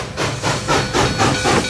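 An archival recording of a steam locomotive chugging past with rhythmic bursts of hissing steam, loud, its regular puffs pulsing about every quarter second over a rumbling low end.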